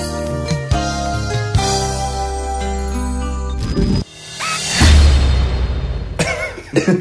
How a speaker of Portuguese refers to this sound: Não, mano, eu precisava tossir.